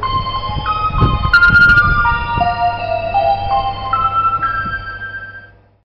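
An ice cream vending robot plays a synthesized jingle, a bright, stepwise electronic melody of sustained tones over a low steady hum and some clattering background noise, then fades out at the end.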